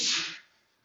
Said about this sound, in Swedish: Prosit.